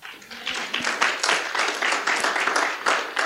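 An audience applauds steadily for a few seconds for the media team, a dense wash of many hands clapping at once, fairly loud and sustained without any talking over it.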